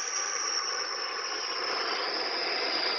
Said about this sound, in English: Oh, that sounded like an airplane. It really did.